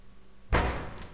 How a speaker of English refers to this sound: That's scary knocking.